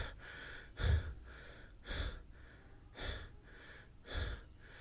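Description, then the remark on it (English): A voice imitates a woman's heavy panting: four loud, breathy gasps spaced about a second apart, each a broad rushing burst with a low rasp, with no words. “And she just heavy breathing, like,”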